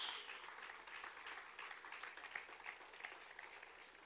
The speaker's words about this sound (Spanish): Le puede dar un aplauso fuerte a Dios.